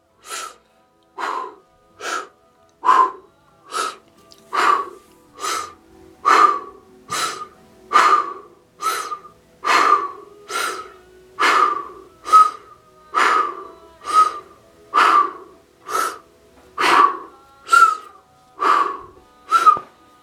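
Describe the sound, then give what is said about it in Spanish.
Forceful breathing in a guided breathing exercise repeats in a fast, steady rhythm, more than twenty sharp breaths about a second apart, each with a slight whistling edge. No one speaks. “Si hacemos bien la respiración, estaremos ajustando nuestra aura para el siguiente paso.”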